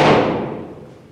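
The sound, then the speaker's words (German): A single knock on a German oak coffin in an undertaker's showroom, a dull hollow thud with a short resonant ring that fades quickly. No voices are heard. “haben Sie den Klang erkannt, das ist deutsche Eiche.”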